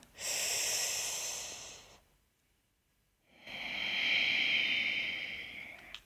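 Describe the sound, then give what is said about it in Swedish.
A slow sitali breathing cycle: a long, hissing inhale drawn through the mouth with a rolled tongue or closed teeth, a pause of near silence, then a steady, airy exhale through the nose. No talking. “Andas in genom munnen, genom med rullad tunga eller stängda tänder.”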